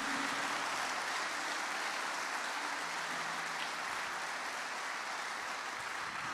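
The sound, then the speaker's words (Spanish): A church audience applauds God steadily, a dense, sustained wash of clapping from many hands that holds at an even level for several seconds with no voices breaking through. “Denle un aplauso a Él. Fuerte, fuerte, fuerte.”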